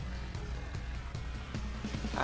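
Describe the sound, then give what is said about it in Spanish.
A deep, rumbling monster growl rolls on steadily for a couple of seconds, loud, with a harsh, gritty texture and no speech over it, as the creature swipes its claw. “Y él gruñe mientras que lanza un zarpazo en contra tuya”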